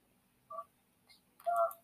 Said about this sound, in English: We don't need to hear that bubbling.